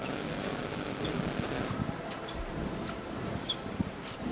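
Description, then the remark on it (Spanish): A dense, continuous shuffle of canvas-shoe footsteps from costaleros (float bearers) moving in step as their procession float leaves through the Puerta de San Miguel onto the Avenida de la Constitución, a low scraping rasp with faint rhythmic scuffs recurring roughly every half second, steady, with no voices. “Escuchamos las zapatillas de los costaleros.”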